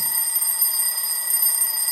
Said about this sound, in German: Stell dir vor, es ist Montagmorgen, morgen früh. Dein Wecker klingelt.